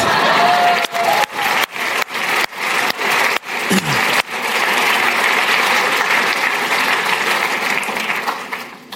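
Loud audience applause at the Prisma for a couple marking their 27th wedding anniversary fills the whole clip, a dense wash of clapping with sharp regular dropouts early on, then steady sustained clapping to the end. No talking is heard.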